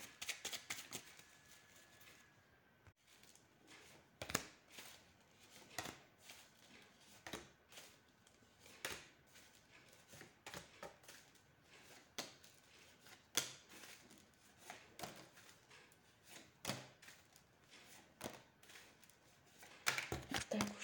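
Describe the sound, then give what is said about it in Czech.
Playing cards being shuffled during a yearly card reading, a steady stream of crisp riffling and slapping bursts repeating irregularly over about twenty seconds, with no talking. “A já už se dívám na vaši fotku, míchám u toho karty a podíváme se teda spolu, jak se bude barvit ten rok 2022.”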